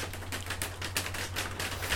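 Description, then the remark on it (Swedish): Heavy rain of a Swedish summer pours down in a dense, steady hiss full of rapid crackling patter, holding an even loudness throughout, with a faint low hum beneath and no voices. “Nu börjar det regna här ganska hårt.”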